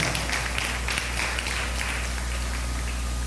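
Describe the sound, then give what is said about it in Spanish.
A church audience applauds the King of Kings steadily for several seconds, a dense, crackling wash of many hands clapping at once, holding an even loudness with no voices over it. “¿Cuántos pueden darle un aplauso al Rey de Reyes, hermanos?”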